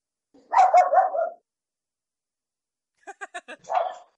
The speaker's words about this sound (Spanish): Perros.